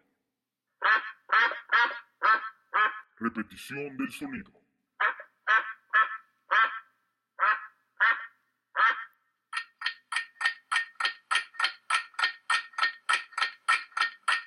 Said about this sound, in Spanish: Y la respuesta es... ¡Un pato! ¡Claro que sí, hombre! Correcto, es un pato. Así es como lo acabamos de escuchar, es un graznido de un pato.